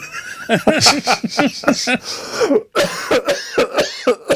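A voice imitates a fit of coughing: a rapid series of harsh, throaty hacks, loud, breaking into a second burst of repeated coughs after a brief pause.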